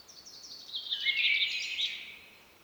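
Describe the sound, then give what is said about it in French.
A blackcap sings a bright, rapid warbling phrase, swelling and then fading over a couple of seconds, with a chaffinch and twittering house martins mixed in, in a gorge where the rock and the depth of the space give an echo. “Une fauvette à tête noire, en compagnie d'un pinson et d'hirondelles de fenêtre qui pépient, chante dans les gorges chandelles avec cet écho particulier dû euh, à la roche et à la profondeur de l'espace.”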